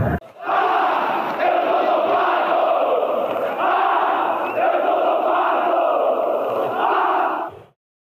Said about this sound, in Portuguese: Vanderlei mandou a bola para a rede. Um para o Brasil, vai a loucura o torcedor chavante do Estádio Olímpico em Porto Alegre.